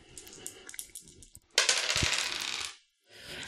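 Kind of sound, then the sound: two dice being rolled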